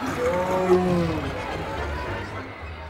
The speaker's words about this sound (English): We've had some incidences where an animal was loose. There was one on, that came onto the bandstand one day uh, that, that I won't forget. Uh, it didn't eat anybody, but it was just looking around. What kind of animal? It was a tiger.